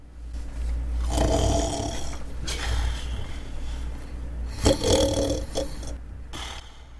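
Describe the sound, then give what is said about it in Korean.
A voice imitates loud, rumbling snoring, with a few long, drawn-out snores repeating in a slow rhythm, exaggerated, as the character Palgye falls deeply asleep lying in the grass. “그러곤 굴굴 깊은 잠 속에 빠져들었습니다.”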